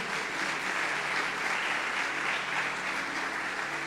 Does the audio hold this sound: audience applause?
yes